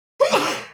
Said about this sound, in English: Bless you. It's going down, dude. She sneezes like that constantly. That's all I got around here. That's what I live with.